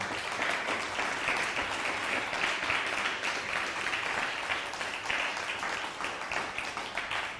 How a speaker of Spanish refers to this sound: Un fuerte aplauso a todos ellos, por favor.